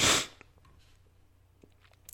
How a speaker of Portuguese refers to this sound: Ah, eu espirrei.